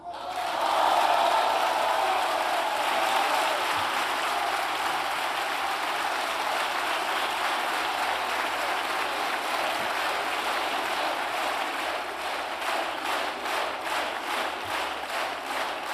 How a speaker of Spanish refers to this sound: Aplausos para Pedro Sánchez, Pedro Sánchez ovacionado al ser reelegido presidente del gobierno con una enorme sonrisa en la cara